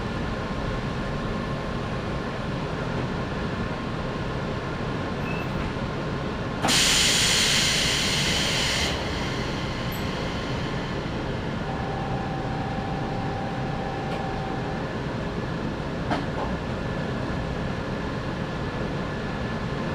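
A local train on the Sangi Railway Sangi Line, running from Nishi-Fujiwara toward Hokusei-Chuo-Koen-guchi, rumbles steadily along the tracks, a continuous low drone with a burst of loud hissing air for a couple of seconds and a faint steady tone later on. No one speaks.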